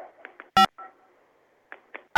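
Short telephone keypad tones beep irregularly over a phone line, a handful of brief presses spread out with pauses, punctuated by two loud clicks like the handset being handled.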